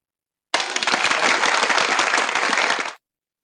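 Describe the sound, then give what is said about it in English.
A burst of crowd applause, dense and steady, starts abruptly and holds at full volume for about two and a half seconds before cutting off sharply. No voices are heard. “And with that, we're going to pull the applause in and move on to the next segment.”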